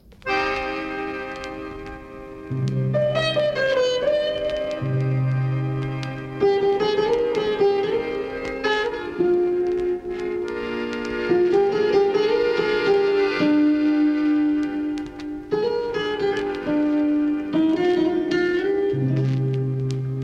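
An instrumental intro to a Persian pop song plays steadily and fairly loud, with sustained melodic lines over bright ringing tones and recurring low bass notes, no voices.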